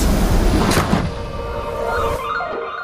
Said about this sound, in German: Sie haben unfassbares Glück, dass genau in diesem Moment eine Tram einfährt.